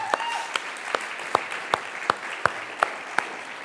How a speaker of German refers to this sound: Meine Güte, auch mal einen Applaus für alle Mitarbeitenden und Jugendlichen, die da dabei waren. Das war großartig.